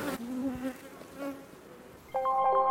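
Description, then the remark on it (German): Honeybees buzz steadily with a wavering drone, and near the end one bee's hum suddenly grows louder and higher. No one speaks. “Also wenn ich an den Bienen bin, sicherlich einmal am Tag.”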